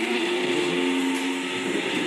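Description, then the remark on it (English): A blender whirs steadily, a constant loud motor hum with a harsh, hissy whine layered over a low drone, holding even throughout with no voices. “First, we're going to do though, get the blender going.”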